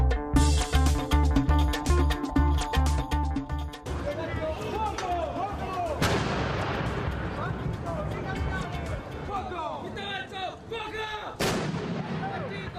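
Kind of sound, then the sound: impact, ceremonial cannon salute fire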